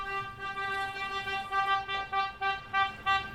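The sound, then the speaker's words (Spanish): A gas delivery truck passing by in the countryside, selling gas, blares its horn in a long, loud, steady honk, then breaks into a run of short repeated blasts toward the end, with no voices over it. “¿Cómo no, no cacha que la gente no puede tocar tanto la bocina?”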